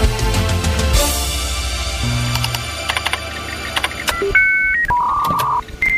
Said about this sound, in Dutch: Ken je dit geluid nog? Internet, verbinding jaren 90. Exact. Modem. Daar gaat het over.